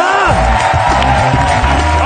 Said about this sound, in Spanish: Pues hombre, yo creo que si alguien se merece un aplauso hoy es Jorge Ponce directamente.